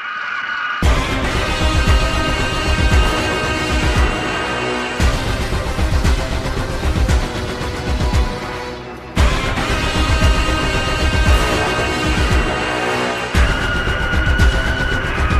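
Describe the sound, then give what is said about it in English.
Loud, dense orchestral film score with pounding low percussion and a piercing, shrieking high tone, driving and menacing, with brief breaks between surging sections and no voices: the Winter Soldier's villain leitmotif from the MCU film score. “That sort of shrieking sound”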